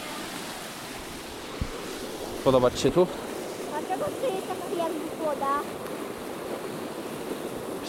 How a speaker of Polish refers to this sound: Jak płynie woda.